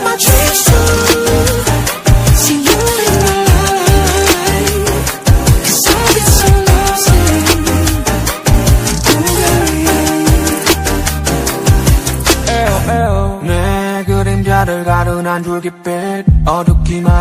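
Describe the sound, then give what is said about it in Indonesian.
A loud pop song, number 13 in a chart countdown, plays with full band and a steady driving beat, with no talking over it; the arrangement thins to a sparser, softer section near the end. “Langsung aja nih kita dengarkan lagunya.”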